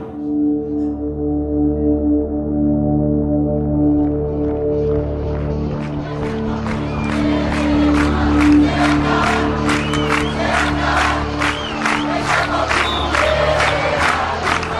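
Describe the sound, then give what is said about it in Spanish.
A large crowd of protesters in front of the government building (gobernación) shouts and chants continuously, voices swelling into a loud, rhythmic roar with repeated bursts of noise and whistles over a steady low rumble. “Con el griterío de los manifestantes al frente de la gobernación”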